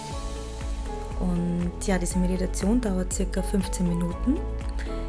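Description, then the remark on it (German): Steady natural rushing water, recorded at a meditation spot, runs continuously in the background, a broad soft wash beneath a calm voice speaking, with no music. “Du wirst sehen, es wird das Wasser rauschen im Hintergrund, deswegen habe ich jetzt auch dabei keine Musik, denn ja, ich finde, das natürliche Rauschen des Wassers ist die schönste Musik”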